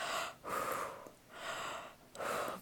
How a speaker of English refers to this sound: breathing exercise thing, and it was a really sweet moment.